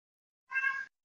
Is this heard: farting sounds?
no